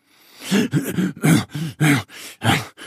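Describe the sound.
A voice imitates a toad panting out of breath after hopping quickly: about eight quick, breathy, voiced gasps in an uneven rhythm, fairly loud, with no words spoken.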